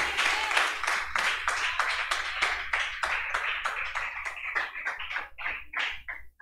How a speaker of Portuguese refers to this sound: Aplauda ao Senhor nessa noite aí. Aleluia.